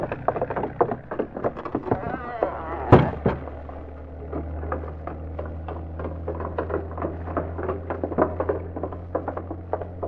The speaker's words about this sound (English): a boat leaving.